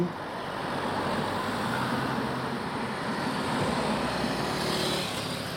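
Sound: motorway traffic passing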